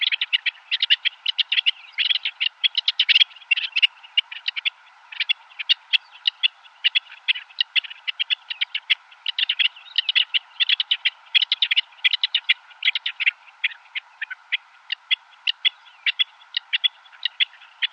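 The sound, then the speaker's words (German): A rock partridge sings a long, steady series of high, scratchy whetting calls, repeated in rapid rhythmic bursts for the whole stretch, clear with no talking. “Aus hohen und wetzenden Lauten besteht der Gesang des Steinhuhns.”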